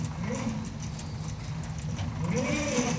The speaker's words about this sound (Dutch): In de schaduw van een boom luisteren we naar het ritmisch ratelen van de molen.